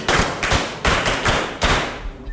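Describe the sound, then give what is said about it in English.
A school class on the first day of school clapping together for a classmate in a steady, patterned rhythm, loud bursts of claps repeating about every half second, with no talking over it. “Shall we clap for her?”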